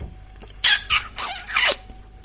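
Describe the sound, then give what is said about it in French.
Four quick, wet kissing smacks made right into the microphone, loud, in an uneven burst with brief gaps between them and no talking. “Je t'ai embrassé.”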